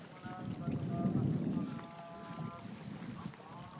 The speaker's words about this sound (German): Jetzt windet es hier auch noch so doll. Ihr hört das.